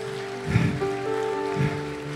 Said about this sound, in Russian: Дай огромные аплодисменты Иисусу.